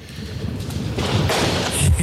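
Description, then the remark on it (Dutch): Decorative fireworks go off outdoors, with several broad crackling bursts and a few muffled low thumps over a steady, noisy background. “Het is wel mooi siervuurwerk, maar hey, als er een vuurwerkverbod is...”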